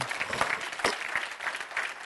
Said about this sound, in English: Somebody need to put your pen down, clap your hands for the Lord, and say amen.